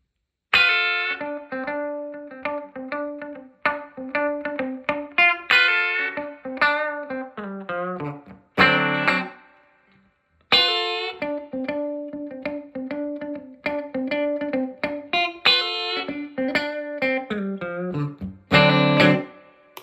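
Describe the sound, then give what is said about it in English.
Clean electric guitar played through an old Deluxe Reverb tube amp, picked chord phrases ringing out with clear harmonic sustain, pausing briefly midway before repeating the pattern. Bright, and alone with no talking. “I'm gonna play it uh, through my old deluxe reverb. You get to hear that clean.”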